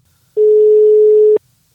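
A phone's ringback tone while calling: one steady, loud, mid-pitched tone lasting about a second, then cutting off cleanly, with no voices around it.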